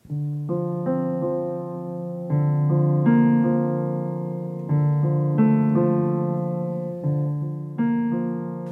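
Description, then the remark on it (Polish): Low keyboard notes between C3 and A3 played one after another in a slow, uneven sequence, each struck clearly and left to ring and fade before the next. There is no speech. “Na klawiaturze to by było w tych dźwiękach gdzieś.”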